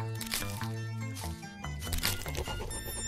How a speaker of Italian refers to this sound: A pochi metri dalla casa abbiamo cominciato a sentire dei rumori strani, cigolii, come di rami che si stanno per spezzare.